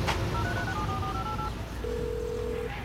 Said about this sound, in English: Phone. Call Bobby.